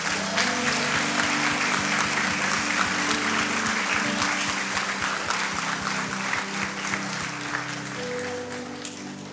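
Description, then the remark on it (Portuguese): An audience applauds steadily for several seconds to congratulate a teacher at the end of the year, a dense wash of many hands clapping at once that holds fairly loud before tapering off slightly near the end. “Vire esse professor do seu lado e dê os parabéns para ela. Bata palmas.”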